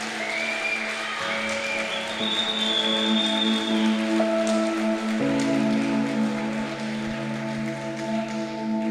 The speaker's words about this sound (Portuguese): Se é para Ele nessa noite a tua adoração, aplaude a Jesus o mais forte que você puder.